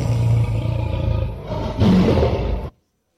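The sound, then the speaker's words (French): A person lets out a loud, drawn-out, forceful roar, lasting about two and a half seconds with a brief surge midway before cutting off into silence. The voice imitates a big cat's roar. “Non, j'ai dit rugir.”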